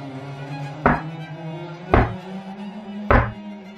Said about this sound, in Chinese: 但是我没有听到砸舌的声音，我听到的是敲门声。 门开始晃动。